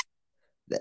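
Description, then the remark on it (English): A single sharp, loud sneeze bursts out near the end, after a brief quiet stretch with only a faint breathy sound before it. “bless you.”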